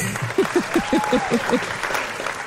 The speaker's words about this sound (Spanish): Esos fueron los aplausos y la standing ovation.